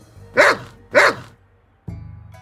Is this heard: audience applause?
no